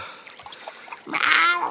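Water splashing and sloshing as someone wades in shallow water, starting with faint scattered drips and trickles, then swelling into a brief, louder surge of churning water near the end.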